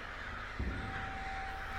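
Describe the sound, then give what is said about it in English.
Crows caw harshly in a short burst, a raspy call rising out of steady outdoor noise, moderately loud, with no one speaking. “god forsaken crows scathed at the crop surrounding the legs of the enormous beast”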